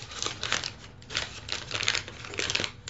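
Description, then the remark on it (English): A little white paper bag holding a birthday gift rustles and crinkles, a steady run of dry, irregular crackles lasting a few seconds, with no one talking. “Um, I didn't wrap it; it's just in a, in a little white paper bag.”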